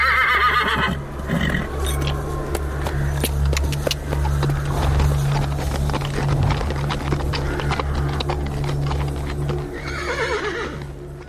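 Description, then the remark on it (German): A horse whinnies loudly near the start and again near the end, while rapid hoofbeats pound steadily throughout, prominent, with a low rumble underneath and no talking. “Zu Pferde, mein Gemahl. Nach Berwick jagt.”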